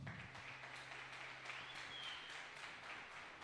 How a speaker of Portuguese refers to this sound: Quem pode aplaudir o Senhor?